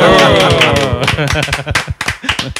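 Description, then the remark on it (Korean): A quick run of hand claps, sharp and crisp, patters along through the whole clip, with voices and laughter layered over the first half before the clapping thins into scattered slaps. “지금 예, 주도에서 박수를 치신 분 역시나 음.”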